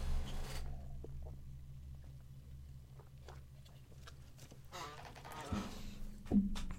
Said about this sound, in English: And then uh, back away from the mic. You hear me gulp it down. Cheers.